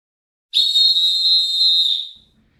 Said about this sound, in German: pfeif mal an.